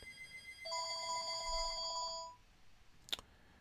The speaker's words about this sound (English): Emma, I'm just gonna need you to cut that out. That phone call there